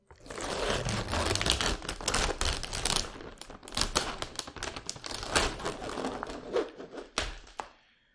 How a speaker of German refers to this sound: ja, zieh die Folie ab